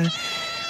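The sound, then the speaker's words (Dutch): A short, high, drawn-out meow from a hungry kitten greeting in the morning, bright, with stacked harmonics and a slightly strained, insistent tone, heard alone without any talking. “Dit is het geluid van de begroetingsochtends.”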